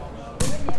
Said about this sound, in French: Il marche pas bien mon tire-bouchon, donc l'effet va pas être...